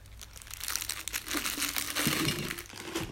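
Continuous crinkling and rustling of packaging as Jaffa cakes are handled and dropped into a biscuit jar, with a few soft knocks, filling about three seconds without speech.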